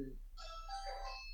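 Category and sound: household object, doorbell ringing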